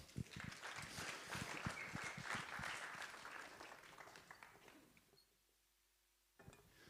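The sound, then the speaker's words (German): A church crowd applauds with dense, rapid clapping for about five seconds, then the clapping drops away to near silence before a brief sound at the end. “Ein Applaus für euch.”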